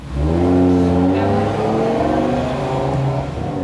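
A car engine revs up and accelerates, its droning pitch climbing then holding steady for a few seconds, loud with no voices.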